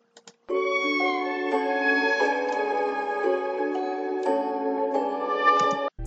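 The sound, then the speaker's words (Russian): A sustained melodic sample for a beat, pitched down a semitone from its original key, plays on its own, with smooth chord-like notes shifting roughly every second, steady and fairly loud, cutting off abruptly at the end. “но в треке я ее опустил на полтона ниже и звучит вот так.”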